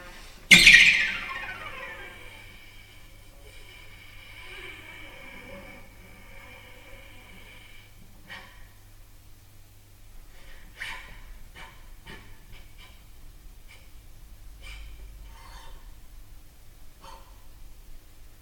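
A bowed string opens with a sharp, squeaky attack and a sustained, fading tone whose pitch slides as the left hand slides along the string, followed by scattered short percussive taps as the springy bow bounces twice against the strings, once with the bow itself and once with its wood.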